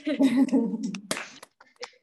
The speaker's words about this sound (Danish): Øh, for nu vil jeg rigtig gerne sige tusind, tusind tak for, øh, til panelisterne. Hvis I lige kan unmute, og så give jer selv og hinanden og publikum en hånd, så vi bare lige får, øh, får lidt stemning ind.